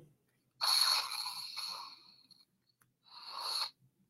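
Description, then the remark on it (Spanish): A Star Wars lightsaber sound effect plays twice from a phone as its stylus is pulled out and put back in: a longer electronic swoosh and hum, then a brief second swoosh after a short pause. Fairly soft, with no talking. “se suenan los sonidos, igual cuando sacas el lápiz óptico también suena.”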